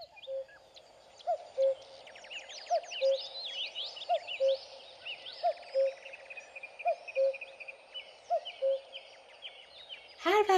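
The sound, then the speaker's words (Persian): A bird that villagers call koo-koo-tee-tee sings its repeating two-note call, low cooing notes paired with bright chirps, cycling steadily about every second and a half, with other high twittering birdsong layered behind it. “مردم روستا این پرنده رو کوکوتیتی صدا میکردن آخه وقتی آواز میخوند همینو میگفت کو کو تی تی به آوازش گوش کنید”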